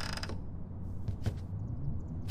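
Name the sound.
door creaking open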